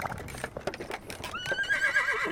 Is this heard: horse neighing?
yes